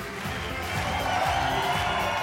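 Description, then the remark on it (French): A large concert crowd in Montreux roars and cheers continuously as the next artist is welcomed, a dense wash of shouting voices that swells slightly and stays loud throughout. “Bonsoir Bonsoir Montreux Montreux Est-ce que vous êtes chaud Là-bas Ici Ici Ici Ici Montrez maximum de bruit”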